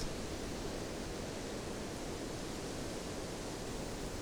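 wind rushing through trees

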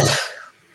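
sneeze or cough

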